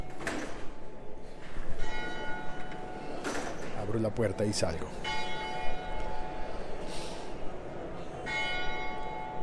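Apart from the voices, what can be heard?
church bells ringing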